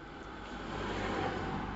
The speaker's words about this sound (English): That's ain't going to be the problem. Just hearing those cars go past.